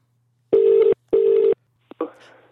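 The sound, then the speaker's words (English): A telephone ringback tone on a call from a burner phone sounds a clear double ring, two steady buzzing pulses in quick succession, then a click as the line is picked up and a voice begins to answer. “oh, blimey, it's ringing.”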